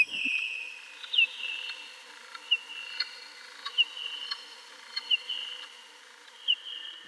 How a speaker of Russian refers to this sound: Вот, и чтобы услышать, чтобы тоже разобрать песни летучих мышей, ученые очень подолгу слушают замедленные версии их песен.